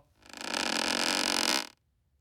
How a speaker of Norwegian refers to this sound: Når jeg tenker meg om, så ville jeg bare brukt lyden av denne døren her. Sånn, den lager jo også en sånn fin knirkelyd. Bare hør, da.